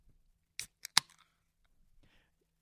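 A can of Beachwood Citraholic IPA beer is cracked open: a few sharp metallic clicks in quick succession, the last the loudest, followed by a faint, brief fizzing hiss. No one speaks.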